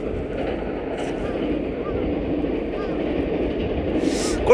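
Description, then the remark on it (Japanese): A commuter train, probably on the Musashino Line that runs to Nishi-Kokubunji, rumbles past in a steady, broad roar that holds at a fairly loud level throughout, with a brief brighter hiss swelling near the end. “電車ね、多分、武蔵野線なんじゃないかな。”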